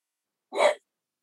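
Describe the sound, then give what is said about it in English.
A single short, husky bark from a French bulldog named Theo, barking at somebody walking by the house, lasting about a third of a second, with silence before and after and no talking. “sorry my my, my french bulldog's barking at uh, somebody walking by the house he was being pretty good for a second there See if I can get him to chill out.”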